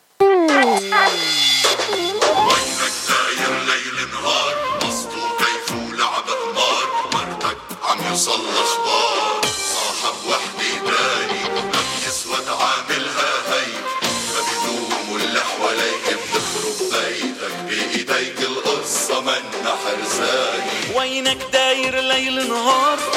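A new Arabic song broadcast on the radio station Idha'at Jabal Lubnan (Mount Lebanon Radio) plays loudly and steadily, full instrumental backing with a melodic line weaving throughout, opening with a sliding, descending tone before settling into a dense, rhythmic arrangement.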